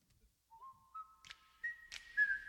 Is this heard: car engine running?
no